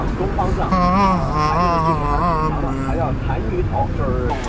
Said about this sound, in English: We're in the taxi now, trying to make it to the bus station. Not sure if we're gonna make it.